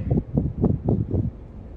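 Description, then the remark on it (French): Low, rumbling gusts of wind buffet the microphone in a quick series of muffled thumps, then ease off into a softer steady rush. “On entend le vent, désolé.”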